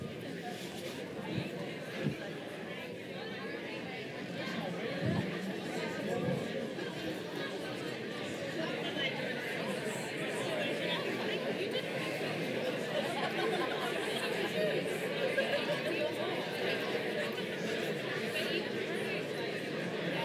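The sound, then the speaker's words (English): A church audience chatting in small groups after being asked to turn to someone nearby and talk, a steady hum of many overlapping voices filling the room with occasional soft laughter, no single voice standing out, continuous for the whole stretch. “So just grab a person around you, turn to someone and be like, man, there's some weird things they do in church. Have a chat, and then we'll party on, eh?”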